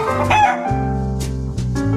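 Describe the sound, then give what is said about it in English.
A rooster crows loudly, one long drawn-out cock-a-doodle-doo with a strained, wavering pitch, heard on its own with no talking. “The Roosters in rare form.”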